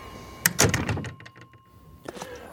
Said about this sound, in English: That night, Gustave Ravoux, owner and innkeeper of the Ravoux Inn, the place in town where Vincent has been staying, is working the front desk when the front door to the inn opens.